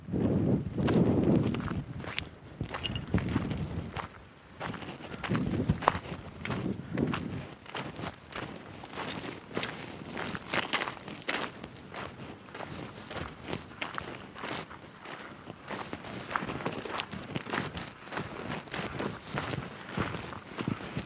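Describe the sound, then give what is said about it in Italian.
Steady crunching footsteps on hard ground of sand and coarse salt at 61 degrees Celsius, continuous for the whole stretch, each step a gritty scrape, with no voices and only faint wind behind. “Ecco, questo è il suono dei nostri passi.”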